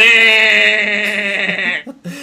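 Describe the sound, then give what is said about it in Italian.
A person imitates a sheep with one long, loud, quavering bleat held for nearly two seconds, followed by a brief voiced sound as it breaks off. “Visto che ho iniziato come …, posso chiudere come …?”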